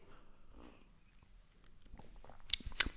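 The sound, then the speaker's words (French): Quiet mouth sounds of someone sipping Indonesian coffee, ending in two short, sharper slurps near the end, with no talking. “je reviens à la tradition du début du podcast. Petite gorgée de café.”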